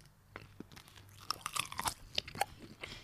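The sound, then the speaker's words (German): Crunchy bites and chewing of a classic bratwurst with mustard, with sharp snappy crackles and wet mouth sounds repeating irregularly over a few seconds, loud and intimate, no talking. “Eine klassische Bratwurst mit Senf, ohne Alter, Witz, ne?”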